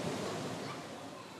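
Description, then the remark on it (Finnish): A steady, diffuse hum of a large, warm underground swimming hall that serves as a shelter fills the space, a broad reverberant wash of noise that stays even throughout with no distinct events standing out. “Uimahallissa on kieltämättä lämmin ja siirrymme maanalaisesta kuumuudesta ja huminasta kesäiseen päivävaloon”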